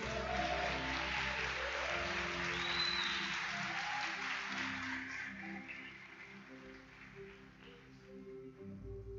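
An audience applauds steadily for several seconds after a preacher at the pulpit vows to preach the Gospel, a dense wash of clapping over sustained low organ or keyboard chords that shift underneath, fading slightly toward the end.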